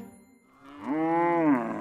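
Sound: cow mooing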